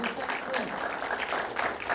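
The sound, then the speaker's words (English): An audience at the kickoff of season nine of Airtime, held in partnership with Alamo Drafthouse, applauds steadily, a dense wash of many hands clapping at an even, moderately loud level for the full two seconds, with faint voices mixed in underneath. “So another round of applause for that.”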